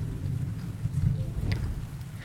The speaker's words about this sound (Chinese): 哎呀，不怕不怕，我去把窗户关上，现在就听不到雷声了。